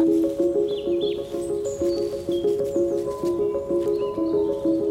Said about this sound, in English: Blue tits, great tits, tree creepers, wrens, and robins. A greater spotted woodpecker.